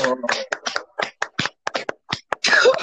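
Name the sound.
hand clapping applause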